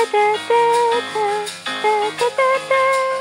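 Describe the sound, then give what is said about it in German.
TV-show theme music played from a smartphone: a bouncy piano-led tune with clear melodic notes over a steady bass line, sounding thin and boxy, with no voices over it. “Äh, er muss es nur auf meinem Smartphone gerade hören, deswegen klingt es so komisch.”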